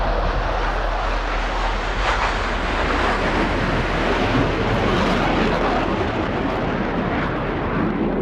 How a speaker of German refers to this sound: Klingt nach Flugzeugturbinen. In Estland sind Luftwaffensoldaten eingesetzt.